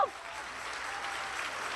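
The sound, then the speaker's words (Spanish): An audience applauds steadily, a dense wash of many hands clapping at a fairly even level for the whole short stretch, with no voices standing out. “Si le vas a dar el aplauso.”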